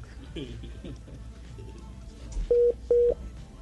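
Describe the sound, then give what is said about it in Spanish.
Two short, steady electronic beeps from a WhatsApp call that failed to connect, evenly spaced and fairly loud, following a stretch of faint background voices and noise. “tenemos problemas con la comunicación con Hernán Crespo eh, vía WhatsApp”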